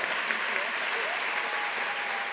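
An audience applauds steadily, a dense, even wash of many hands clapping at a constant loudness throughout, with a faint murmur of voices underneath.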